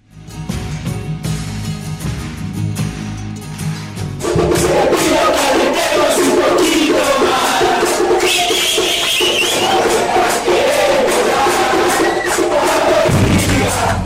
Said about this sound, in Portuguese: No episódio de hoje, a torcida vai cantar de novo, vai citar os torcedores eh, de Guayaquil, não os do Emelec, mas os do, do, do Barcelona,